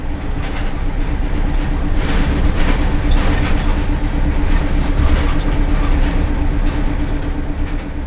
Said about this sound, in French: on est à l'arrière du, à l'arrière du bus, euh, les cheveux dans le vent